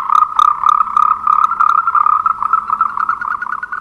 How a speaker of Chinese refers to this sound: 青蛙。